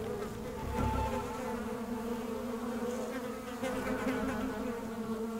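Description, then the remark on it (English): A dense swarm of bees drones steadily while sucking the last of the moisture from a muddy hole, a continuous layered buzzing with no pauses and no voices, swelling slightly at moments. “Now a swarm of bees suck the last of the moisture from a muddy hole.”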